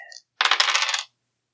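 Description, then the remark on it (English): Dice clatter and rattle across a hard table for about half a second, a bright burst of quick tumbling clicks, preceded by a faint short chime-like tone; the dark die lands on a six. “These dice.”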